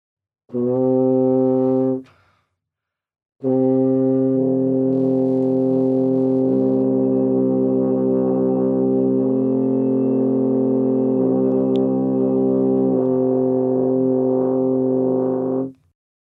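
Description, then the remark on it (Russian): A French horn plays a short steady note, pauses, then holds a long note while the player sings into the mouthpiece, giving a thicker, buzzing, slightly wavering tone. It is loud, with no talking. “А вы можете сыграть ноту без голоса и сразу же с голосом?”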